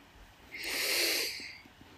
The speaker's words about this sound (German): Und dann schließt die Augen. Mhm. Wir atmen ein.